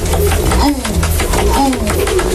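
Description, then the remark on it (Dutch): A man, the pigeons' owner, imitates pigeon cooing with low, rolling hoots repeated in a steady rhythm, fairly loud, calling his pigeons in, in The Hague. “Dat is een beetje een duivengeluid, hè, want wij moeten ons zitten roepen, laat ik het zo zeggen.”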